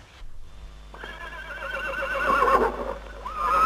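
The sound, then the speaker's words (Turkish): A horse whinnies loudly and close by, a long wavering neigh that rises and trembles for a few seconds before a final high squeal, with no voices present. “Tam kapıyı vuracaktı ki yanı başında duran bir atın kişnemesiyle kendine geldi.”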